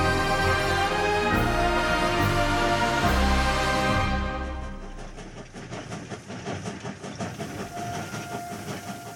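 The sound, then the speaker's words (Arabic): A train rolls along the rails: a loud, sustained whistle blares for several seconds, then gives way to a steady, rhythmic clatter of wheels over track joints, depicting a train crowded with prisoners carrying Sergei Korolev across the Ural and Baikal mountains of Russia. No one speaks. “في قطار مكتظ بالمساجين نقل سيرجي كارالوف في رحلة شاقة عبر جبال الأورال والبيكال الروسية قبل أن يعبر بحر أخوتسك المتجمد”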